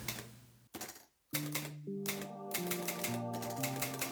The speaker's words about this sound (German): Soll ich jetzt mal den Jingle abfahren